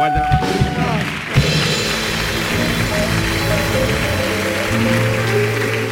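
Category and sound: crowd, audience applause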